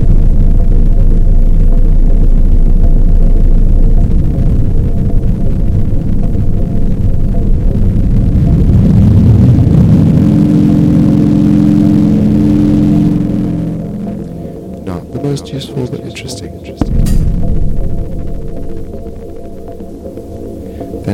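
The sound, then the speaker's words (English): A delay pedal's repeats build into runaway self-oscillation, a loud droning hum with a pitch that sweeps and swells, then drops away into sharp clicks before the drone returns. “there's the repeats, which can go into runaway, uh, self uh, reinforcement, which I'll try right here.”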